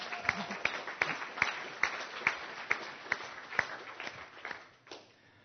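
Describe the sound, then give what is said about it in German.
An audience applauds together, the clapping falling into a steady, rhythmic beat with sharp, ringing claps before tapering off at the end. “Ähm, wirklich, geben wir diesen Applaus, äh, also zu Besten.”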